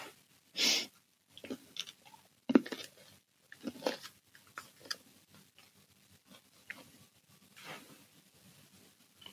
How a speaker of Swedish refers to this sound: Jag kan sitta här och tugga lite. Mm. Ja, det är bra. Då får lyssnarna en, i alla fall 45 sekunders pure tuggande. Det är de värda.